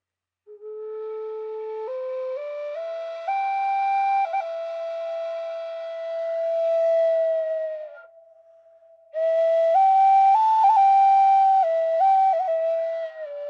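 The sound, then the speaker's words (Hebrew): A sound check of isochronic electronic tones for a multi-dimensional sound meditation, recorded in a studio with microphones in both ears of a dummy head: steady, whistle-like notes rich in overtones step upward in pitch over several seconds, dip and pause briefly, then resume louder, wavering between close pitches. No one speaks. “Isochronic & Shamanic | מדיטציית צלילים רב ממדית | טונים איזוכרונים”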